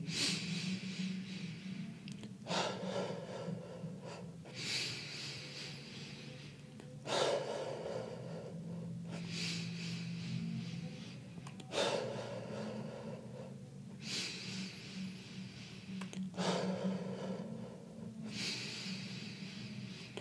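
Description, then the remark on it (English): Deep, forceful breaths cycle steadily in and out during a breathwork exercise, roughly one every two seconds, loud with an airy rasp on each pull. No one speaks. “Keep the breath, breath going.”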